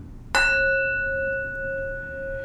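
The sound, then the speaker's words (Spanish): A small Tibetan bell is struck once to open a talk, giving a bright metallic strike followed by a long, steady ringing tone with several clear overtones that hum on without fading much. “De esa, tocar la campana, esa campana tibetana.”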